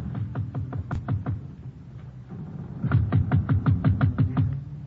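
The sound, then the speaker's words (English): A man knocks on the wooden door of a ship's cabin in two rounds of firm, evenly spaced knocking, a short burst of about seven raps, a pause, then a longer series of about ten. “I wait a short distance away while he knocks on the door.”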